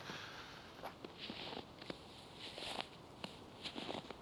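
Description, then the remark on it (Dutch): Footsteps crunch steadily through snow on a snow-white road, a series of soft, gritty crunches in an even walking rhythm, fairly quiet, with no talking. “De sneeuw knerpt, totdat een bijzondere wegwijzer andere geluiden aankondigt.”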